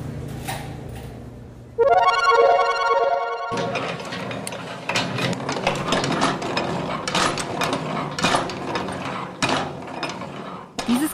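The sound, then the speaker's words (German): A hand-cranked 18th-century wooden drum washing machine, one of the first washing machines, its large wooden drum swung by hand with a lever, clatters and knocks steadily, a busy run of rattling wooden and ratcheting mechanical noises, after a brief hum and a short sustained tone at the start. “Lärme war der Sound der ersten Waschmaschine aus dem 18. Jahrhundert.”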